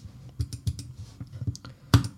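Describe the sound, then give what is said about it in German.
Computer keys being clicked to place a food order, in a quick, uneven series of sharp taps, fairly quiet, with one louder click near the end and no talking. “Mmh, klicke die Klick, klick, klick.”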